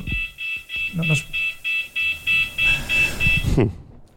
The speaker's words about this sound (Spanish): En este caso era la alarma de incendios